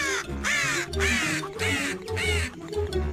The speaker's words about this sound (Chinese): 古怪的乌鸦，他们会对着你叫；